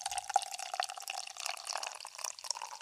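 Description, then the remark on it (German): Beer poured into a glass by a skilled pourer as a steady trickling stream with a faint fizzing hiss and a few small splashy drips, continuous and fairly quiet, with no voices. “Dem kannst du irgendwas in die Hand drücken, der schenkt es perfekt ein, ne?”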